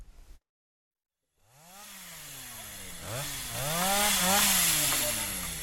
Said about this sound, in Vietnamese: người dân trồng keo trong xã tranh thủ cưa những cây keo non ngã đổ bán rẻ